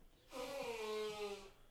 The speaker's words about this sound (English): No, no, he's blowing his nose.